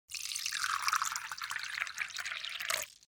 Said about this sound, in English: So pour yourself a cup of tea and get comfortable.